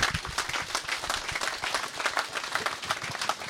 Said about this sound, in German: Danke denen, die es tun die Pioniere, die brauchen wir in Oberösterreich und die haben einen Applaus verdient.